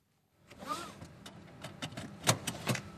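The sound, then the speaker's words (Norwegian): A car seatbelt is pulled across and fastened, with soft rustling and a sliding strap sound followed by two sharp clicks of the buckle latching, in a quiet car. “Et bilbelte blir festa, og med ny teknologi får du ikke starta bilen uten at beltet er på.”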